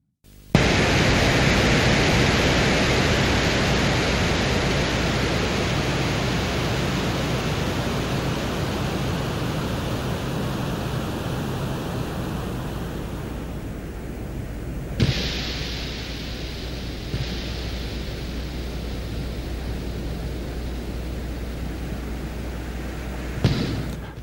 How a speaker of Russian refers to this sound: То, что вы слышали, это первый настоящий внеземной звук, который удалось услышать людям.